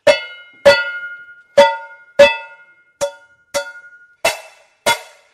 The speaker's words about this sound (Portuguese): pega a panela e vai ali testando, bate de todos os jeitos possíveis, grava e escolhe uma batida que ele achou, claro, a melhor.